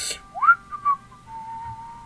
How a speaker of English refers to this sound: Just sort of, yeah, maybe whistling a little bit, like.